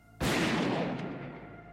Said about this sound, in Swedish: När de faller hör Svein hur ett skott avlossas från pistolen i Jannes hand.